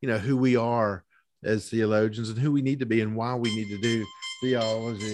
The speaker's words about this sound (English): Oh, that's my alarm there.